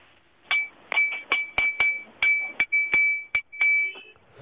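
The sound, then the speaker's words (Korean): A ladle taps a drinking glass about a dozen times in an uneven rhythm, each sharp clink ringing with a clear, high, sustained tone before the next strike. “자, 국자로 유리컵 두드리는 소리였습니다.”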